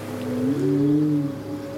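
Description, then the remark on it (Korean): A low, drawn-out whale call moans and slowly bends upward in pitch, resonant and steady for over a second against a faint underwater hiss, with no voices. “중요한 선택을 앞두고 걱정이 많다면 저 먼 바다에서 들었던 고래의 노랫소리를 떠올려 보세요.”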